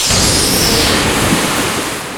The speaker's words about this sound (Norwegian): Plutselig står det en, en sky en, en, som en geyser står opp av vannet